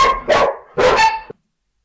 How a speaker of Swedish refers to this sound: det blev ett litet avbrott där för att eh, Stella började skälla